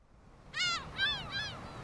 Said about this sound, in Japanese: ウミネコがけたたましく頭上を旋回しているここはよく美咲と学校帰りに寄り道した海岸だ